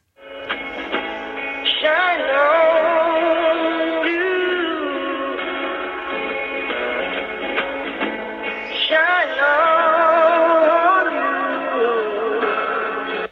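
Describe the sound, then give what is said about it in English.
A song plays through a thin, tinny telephone line as hold music, a steady melodic tune with no talking, holding a constant moderate level for the whole stretch. “And I suppose the song was clearly given, was chosen to give the caller a, a sort of a positive feeling about the product that they're selling.”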